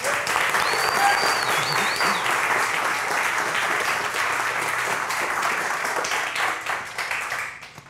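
Sustained applause from a sizable audience for the evening's speaker, author Annalee Newitz: a dense wash of many hands clapping at steady loudness for several seconds before beginning to thin out near the end.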